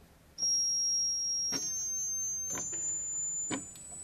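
A thin, piercing note, the highest note of a pipe organ, starts abruptly and holds steadily for several seconds, like an electronic beep, with faint periodic clicks or thumps beneath it at about one-second intervals.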